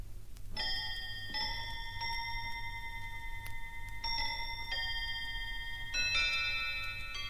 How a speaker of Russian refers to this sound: Между тем столовые часы пробили третью четверть седьмого